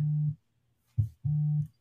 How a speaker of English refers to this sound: As my phone is blowing up, gotta love live.